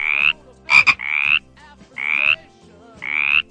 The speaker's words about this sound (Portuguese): Que som de batraco é este?